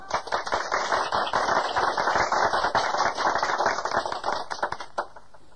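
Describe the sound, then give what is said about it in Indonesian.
A burst of dense, steady applause from many hands of paid supporters, loud and crackling for about five seconds before thinning out into a few scattered claps at the end. “Dia mau lamaan tepuk tangannya biar mahalan.”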